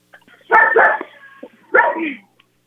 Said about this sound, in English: I think the dog has answered the question.